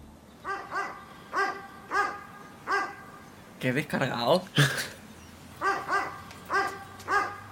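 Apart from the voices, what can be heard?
dog barking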